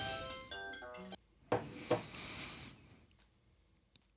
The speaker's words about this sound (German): Tja, bei der Gelegenheit gleich mal einen Schluck Kaffee getrunken.